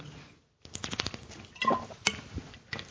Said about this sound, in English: All right. Uh, let me get a sip here, real quick.